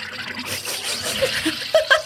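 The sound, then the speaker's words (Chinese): A SodaStream sparkling water maker carbonating: a steady hissing, bubbling rush of water and gas, ending in a few louder gurgling bursts. “就是和 Soda Stream 气泡水机打出来的气泡水，它在打气时候的这个声音。”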